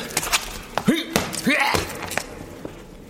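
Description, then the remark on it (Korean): Two dull, heavy thuds land about half a second apart, fairly loud, as a man lands two fist punches on another person, with faint voice sounds around them. “이번엔 두 대다.”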